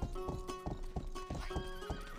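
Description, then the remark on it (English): A horse in a video game whinnies with a wavering, high-pitched call while its hooves clop in a steady, rapid rhythm underneath as it is ridden, loud and continuous throughout, with no one speaking. “You can't pick up items while riding a horse.”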